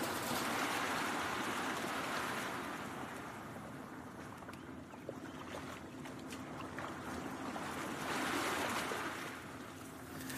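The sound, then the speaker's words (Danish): Water washes against the shore in slow swells, rising at the start and again near the end, with a steady broad rush in between and no voices. “gå her langs øh, vandkanten, ikke?”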